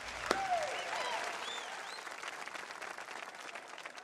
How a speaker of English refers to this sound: So, first, a round of applause for yourselves for making it through.